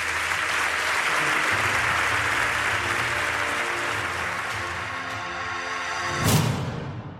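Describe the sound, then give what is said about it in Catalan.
Steady, loud applause from an audience at a sports gala for the president of Club Hoquei Olot, a dense clatter of many hands clapping that begins to taper toward the end, with a brief louder burst just before it fades. “Veurem si arriba, en tot cas s'ha demostrat que l'hoquei Olot no és de plata, sinó que és d'or, per tant un fort aplaudiment”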